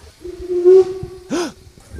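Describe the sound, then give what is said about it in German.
A steam locomotive lets off a short, loud burst of hissing steam over a steady whistle-like tone, with low rumbling underneath and no one talking, as the train sets off again in cold weather of about 5°C. “Was für ein Dampf oh raus. Gott, oh Gott. geht los, wir fahren wieder.”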